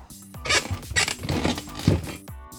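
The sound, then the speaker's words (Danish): A studio chair, which has lately begun to creak a lot, creaks and groans in several irregular bursts, some rough and scraping, others squeaky and tonal, with a short squeak at the very start and end. No one speaks. “Det er vores stol her i studiet, der er meget snaksalig. Den er begyndt at knirke så meget på det sidste, og det kommer med i radioen.”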